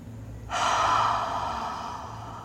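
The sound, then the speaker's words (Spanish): During a guided breathing exercise, a person draws in a breath as deeply as possible, followed by a long, audible exhale, fairly loud, a broad airy rush that slowly fades. No one speaks. “te invito a que cierres los ojos y respires lo más profundo que puedas. Lo haré contigo. Y te invito a que cuando exhales, escuches tu propia exhalación.”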